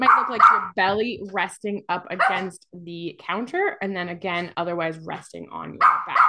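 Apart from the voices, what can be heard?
puppy barking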